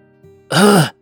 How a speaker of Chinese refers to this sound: 而江家老爷子也十分诧异。首先还是江家老爷子咳嗽一声问道